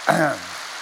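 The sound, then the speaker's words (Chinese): An audience applauds in a steady, dense crackle of clapping that continues evenly throughout, with a brief tonal vocal sound rising over it right at the start. “刚刚在新加坡四万人大会，听着四万人的掌声，跟你们好像也差不多嘛。”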